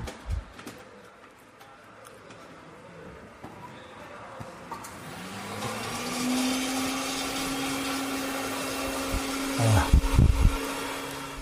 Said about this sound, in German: Man hört den Mixer im Hintergrund.